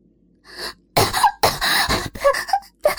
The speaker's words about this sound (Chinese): 向后退出去，捂着嘴，死命的咳嗽着。